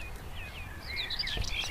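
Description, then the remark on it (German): A common whitethroat sings a short, scratchy warbling phrase of quick high notes over a low outdoor rumble with no talking, in the Moselaue bird protection area at Perl-Nennig, Saarland, Germany. “Das ist jetzt eine Dorngrasmücke, die da singt.”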